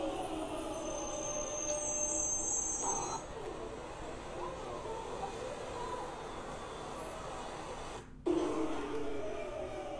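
A London Underground (Tube) train pulls into a station with a loud, steady rumble that fills the space, a thin high-pitched squeal of wheels or brakes early on, and a brief dropout near the end.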